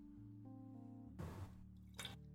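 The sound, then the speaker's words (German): A drink is topped up into a glass in two short splashing bursts, with only a little left to pour, over a steady low hum in the background and no one speaking. “Ich gieße mir nochmal hier was nach.”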